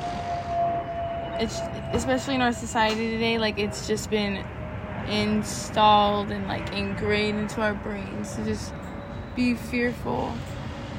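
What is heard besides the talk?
airplane flying overhead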